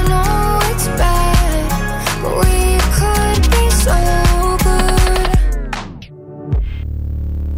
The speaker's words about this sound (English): She's just released a new song called ….